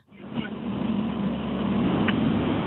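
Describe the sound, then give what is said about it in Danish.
Steady, muffled rumble of a car driving in Vøgen, heard through a narrow telephone line, with constant road and engine noise filling the background and no one speaking. “Du, øh, du ringer ind fra Vøgen, så det lyder som om, du er ude og køre i en bil.”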